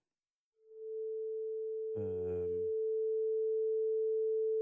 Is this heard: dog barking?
no